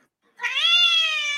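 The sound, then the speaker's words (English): A single drawn-out, high-pitched kitten meow from a recording rises after a brief silence and holds steady for about a second, fairly loud, with no other sounds around it. “They're kittens.”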